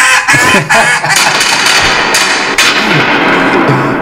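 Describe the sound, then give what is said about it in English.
A duck call used by quarterback Devlin "Duck" Hodges blares loud, harsh raspy quacks repeating in quick bursts that run together into a noisy, continuous honking for several seconds. “Hodges in there with his duck call. Quack, quack, quack.”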